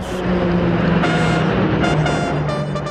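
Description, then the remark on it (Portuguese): A loud, steady roar of Brazilian Air Force aerobatic jets, the Esquadrilha da Fumaça, passing overhead while drawing a huge heart in the sky, with a broad rushing noise and shifting high-pitched engine whine that swells and fades over a few seconds. “e a Esquadra da Fumaça, como lhe chamam no Brasil, os aviões da Força Aérea que desenham um coração enorme no céu.”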